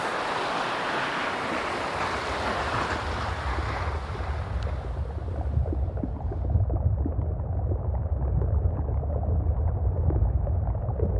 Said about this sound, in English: How as different as each image is photographically, that the sound of an iceberg, each iceberg is very different.